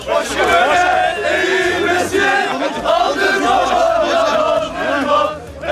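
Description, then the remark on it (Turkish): A large crowd at Samsun Airport cheers and chants loudly and continuously, welcoming former Interior Minister İdris Naim Şahin and throwing confetti, many voices shouting together in a dense, energetic roar, with rhythmic chant-like swells throughout. “Kalabalık Şahin'e konfetiler atarak tezahüratta bulundu.”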